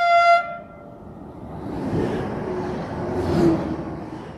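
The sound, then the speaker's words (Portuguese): A Stadler Flirt passenger train, one of the future trains of Portuguese railway CP, sounds a short, steady horn blast, then rumbles past with a broad, rising roar and rattling rolling noise. No one speaks. “Mas antes arrancamos este episódio com o som dos futuros comboios da CP, os Flirt da Stadler.”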